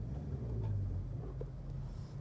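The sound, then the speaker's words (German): Steady low rumble of a car driving, no longer on the motorway, heard from inside the cabin, with continuous road and engine noise at a constant level and no voices. “muss ich das Fenster aufmachen, weil im Auto viel zu warm ist. Bin ja auch nicht mehr auf der Autobahn.”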